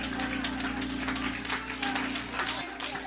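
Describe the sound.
An audience claps their hands for God in a dense, steady burst of applause that carries through the whole moment, with a low constant hum and faint voices underneath.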